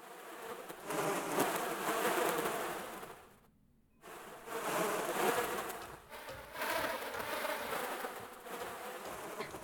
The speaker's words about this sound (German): Heute das Backrohr.